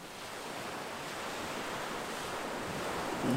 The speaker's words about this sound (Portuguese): Está a ouvir este som? Este é o som do mar.